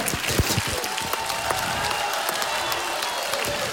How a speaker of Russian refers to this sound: Еще раз от всей души благодарим вас за то, что вы для нас сегодня сделали. Да, аплодисменты зала.